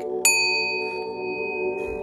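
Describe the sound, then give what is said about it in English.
A single loud bell ding rings out sharply and then sustains, its bright tone slowly fading over a couple of seconds above a steady low hum, with no talking. “That bell ding was a loud one, wasn't it?”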